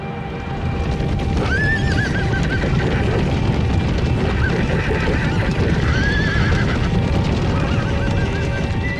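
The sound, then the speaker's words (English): Several horses for the British Imperial Forces, many not even saddle broken, whinny at intervals over a dense, continuous bustle of hooves and movement, the neighs rising clearly above a steady, busy low rumble throughout. “Many of the horses are not even saddle broken.”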